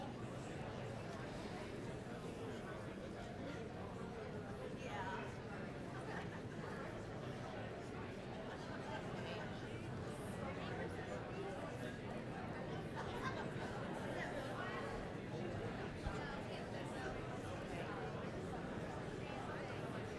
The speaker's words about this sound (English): So take the next minute with one other person and just ask them, is there something like that in your heart that you would love to do to spread God's mercy to people, okay? I want to hear like the hum of voices right now of you talking to each other.